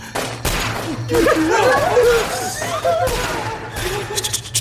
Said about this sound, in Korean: 총소리!